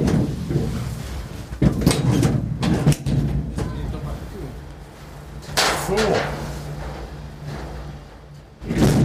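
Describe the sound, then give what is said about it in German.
Several sharp metallic clunks and thuds of Ferris wheel cabin doors shutting in Cologne, spaced irregularly over steady low machinery hum, with a louder burst of rattling near the end and brief murmurs of voices. “Ihr hattet gerade ein bisschen Eindruck von der Geräuschkulisse hier, äh, Türen zu und alles.”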